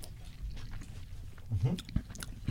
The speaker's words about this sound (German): Heiß. Ich dachte, das ist schon kühler, weil ich so lange geschnurrt habe. Mhm. Ja, eine gute Temperatur, gut reinbeißen.